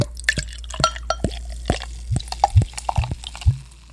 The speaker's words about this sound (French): nous avons malgré tout versé ce liquide inconnu dans euh, une pinte, une pinte anglaise